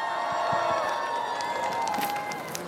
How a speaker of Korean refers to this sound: 박수 보내주시기 바랍니다.